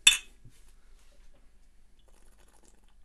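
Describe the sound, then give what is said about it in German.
A single bright clink of glasses of Helles beer touching in a toast, crisp, ringing briefly before fading into near silence with only faint rustles afterward. “Ich muss jetzt erstmal antrinken. So, Prost. Prost.”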